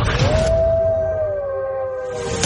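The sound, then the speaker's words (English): A single long dog howl, rising at the start and then holding a steady, slightly wavering tone before slowly sinking and trailing off, loud with a faint low rumble beneath. “The underdog is howling.”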